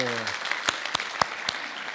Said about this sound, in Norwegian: Er ikke det vakkert? Jeg syns jeg skal gi det en applaus.